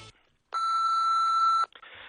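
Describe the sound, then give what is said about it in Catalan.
A single loud answering machine beep, one steady high electronic tone lasting about a second, heard alone between brief bursts of faint noise. “és moment ara de tornar-nos al nostre contestador particular amb alguns dels missatges que ens hi han deixat els nostres estimats col·laboradors per explicar-nos què es cou per ells durant aquest estiu.”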